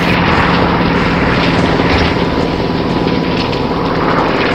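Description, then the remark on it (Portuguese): Loud, steady roar of helicopters with a fast rhythmic rotor chop as soldiers arrive, continuous throughout, filling the scene with dense engine noise and no voices. “Eles não tinham helicópteros, é a cavalaria chegando.”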